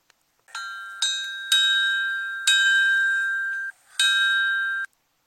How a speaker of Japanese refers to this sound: 今ですね皆様にもその銅鐸の音っていうのを聞けるようにちょっと準備をしてきたので、えー、ぜひぜひ聞いていただきたいと思います本当に一瞬なんですけど聞いてみてください